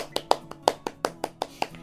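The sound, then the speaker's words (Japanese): A quick, steady burst of hand clapping, about ten sharp claps in under two seconds, moderately loud, with a faint low hum underneath. “拍手なのかこれは。まあ、拍手しとこうか。”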